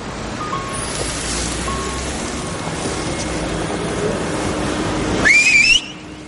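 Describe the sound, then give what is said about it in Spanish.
A woman's loud, short rising whistle by a seaside promenade cuts in near the end, sliding upward for about half a second over a steady wash of outdoor noise like wind or surf. “Silba fuerte y lo saluda con su mano tras una baranda.”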